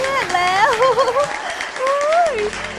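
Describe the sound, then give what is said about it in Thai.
A crowd of villagers cheers and shouts with joy as the floodwater rapidly dries up, voices whooping in rising and falling tones over a steady bed of clapping and crowd noise, fairly loud. “เมื่อร่างอันบริสุทธิ์ของสาทัวได้กระทบกับสายน้ำพลันขึ้นน้ำมหึมาและมวลน้ำก็ได้แห้งลงไปอย่างรวดเร็ว ชาวบ้านแสดงความดีใจโห่ร้อง”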